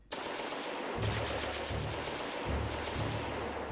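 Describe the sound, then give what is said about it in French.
Sustained bursts of rapid gunfire, loud, with repeated heavy volleys punctuating a dense, continuous crackle of shots and no voices, as the facade of a small house on a small archipelago is machine-gunned. “Des coups de feu ici La façade de la petite maison est soudainement mitraillée.”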